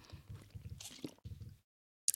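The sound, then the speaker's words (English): Quiet wet sipping and gulping noises of someone drinking water, a series of small liquid slurps and swallows, then a pause before a brief sharp sound at the end. “Sorry, water.”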